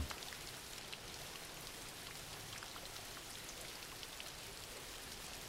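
Steady rain falls throughout, a dense, even hiss of drops pattering on a surface with scattered sharper ticks, unchanging in level, with no voices.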